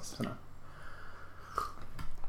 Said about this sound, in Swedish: Så, det var en klunk av mitt te. är det gott? Mm, det är gott.